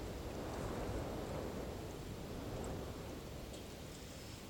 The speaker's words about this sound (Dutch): Dan denk je, oh ja, nou, ik ga wel weer lekker slapen. En dan, en dan komt die wind ineens weer op.